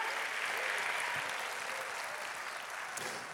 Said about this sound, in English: Oh, will somebody clap your hands and praise God?